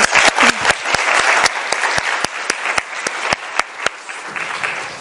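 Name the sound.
group applause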